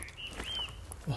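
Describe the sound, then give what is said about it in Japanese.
Faint bird calls drift through an outdoor setting: a couple of thin, high chirps over a soft background hush, with no other clear sounds. “鳥の鳴き声だ。”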